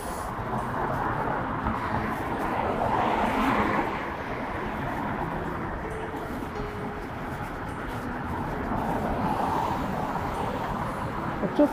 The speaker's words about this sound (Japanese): 車の音は入っちゃうと思いますが。